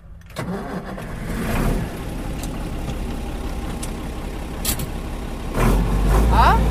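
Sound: tractor engines idling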